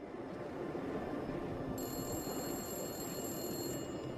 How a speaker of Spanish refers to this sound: Luego, a la 1 y 15 de la mañana, el teléfono público comenzó a sonar.